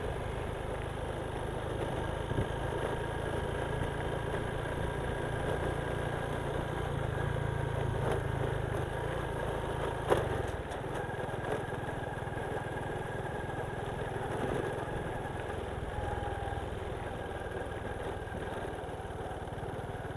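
A motorcycle engine drones steadily throughout while being ridden, a low continuous rumble with a faint tonal whine, holding a fairly even pitch as if cruising at moderate speed, dominant, with no voices.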